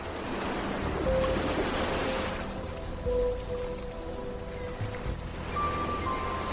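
Gentle Mediterranean Sea waves wash steadily against the shore of the island of Mallorca, Spain, with a soft, continuous sea breeze blowing across the microphone; calm and without any voices.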